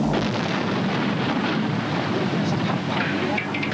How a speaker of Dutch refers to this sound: De typische schachten, de mijngebouwen en de koeltorens worden opgeblazen. Grote steenbergen worden met de grond gelijk gemaakt en ook de iconische schoorstenen, Lange Lies en Lange Jan in Heerlen, moeten eraan geloven.